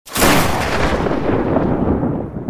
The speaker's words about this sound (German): Ein weiteres Mal ertönt der Sound of Thunder